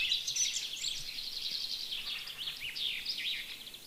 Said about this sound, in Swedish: Det var en bofink förresten.